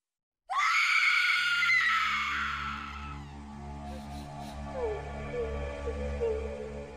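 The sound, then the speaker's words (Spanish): On a Sunday near midnight, a hysterical young woman, a niece, suddenly lets out a loud, piercing scream that holds for a few seconds, then breaks into lower, anguished wailing and sobbing, unbroken, with no talking. “Un domingo, casi a la medianoche, me despertaron unos gritos y un terrible llanto.”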